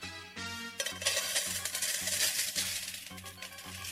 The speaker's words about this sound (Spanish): Jorge depositó unas monedas y dio la media vuelta.